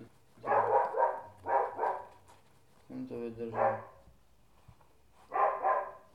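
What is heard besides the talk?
mixed-breed dog barking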